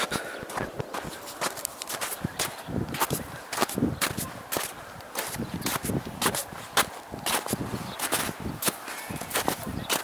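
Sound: footsteps walking through snow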